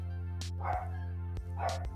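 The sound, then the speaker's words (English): Dogs bark in two short bursts, roughly a second apart, because they expect to get treats, over a steady low droning hum, with no talking. “Now, that's the security team in the background. The reason why they're barking is because they're supposed to get treats.”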